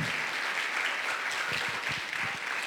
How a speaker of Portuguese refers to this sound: Uma grande salva de palmas para Jesus